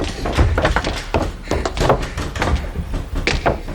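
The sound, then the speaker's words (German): A heavy, sturdy door thuds shut and is locked amid a clatter of knocks and metallic clunks, like bolts being worked, several solid impacts over a few seconds with no voices. “Sperrt die Türen hinter euch zu.”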